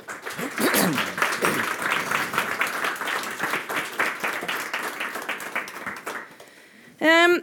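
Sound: audience applause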